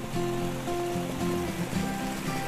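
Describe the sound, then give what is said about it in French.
A steady wash of running water from a small, pretty mountain brook beside a religious community's house, with a series of low, sustained tonal notes rising and falling over it. “Elles vivent à l'Institut Notre-Dame de Vie, une communauté d'origine française qui a établi une de ses maisons au bord d'un tout joli ruisseau.”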